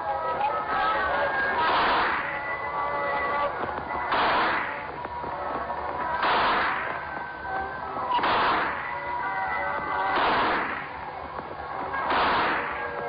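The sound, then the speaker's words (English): Shooting-gallery gunshots knocking down clay pipes: six sharp, evenly spaced bangs about two seconds apart, each with a brief crackling burst, over a steady tonal background. “Hey, hey, that's good shooting. You must have been in the army or something. You really knocked them down.”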